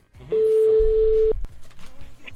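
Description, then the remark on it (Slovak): A single steady telephone ringback tone drones for about a second, clear and fairly loud, then cuts off and gives way to faint, muffled voice-like sounds over the phone line, as a call is placed to a venue called Express near Prešov, Slovakia. “No a volali sme tam.”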